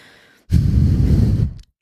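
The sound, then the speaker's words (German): A person imitates how a dog snorts loudly when its owner, asleep in bed, does not lift the blanket for it: a single forceful, breathy huff lasting about a second, loud, with no speech. “Dann, äh, dann schnauft die erst so ganz laut so”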